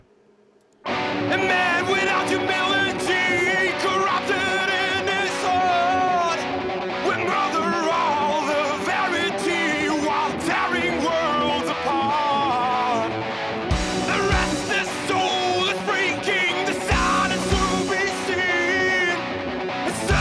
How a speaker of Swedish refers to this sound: Så att det här ska vara heavy metal hårdrock.